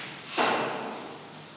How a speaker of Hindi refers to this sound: थोड़ा दरवाज़ा हवा की वजह से बड़ी तेज़ी से खुल गया एक मिनट के लिए आप क्षमा करें